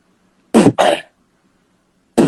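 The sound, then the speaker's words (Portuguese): A voice imitates a punchy tom-tom as a sound technician gates and compresses it during a drum soundcheck: two short, loud, breathy thumps in quick succession, each cut off abruptly, followed after a brief silence by a third hit. “Vai começar pelo tom-tom. Vamos passar só o tom-tom.”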